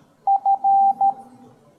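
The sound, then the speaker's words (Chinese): A steady, mid-high electronic tone pulses in Morse-code fashion: four beeps in a short, short, long, short pattern, clear and fairly loud with no voices. “比如说，我要输入 h hello，那我们只要只要滴滴滴滴四声就可以了，对吧？”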